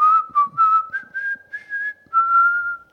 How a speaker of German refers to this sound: Pfeifst du jetzt? Ja. Guck mal, das Mikro hat es bei mir zugemacht. Ich habe das Pfeifen nicht gehört.